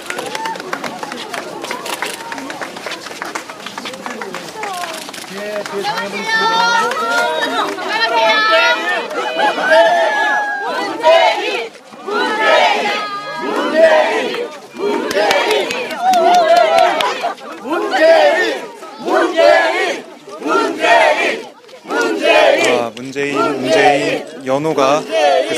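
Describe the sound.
A loud, dense crowd of citizens cheers and shouts over a steady wash of clapping as former party leader Moon Jae-in comes out surrounded by them, with many voices overlapping; partway through, the shouting turns into rhythmic, repeated chant-like bursts of 'Moon Jae-in, you're cool!'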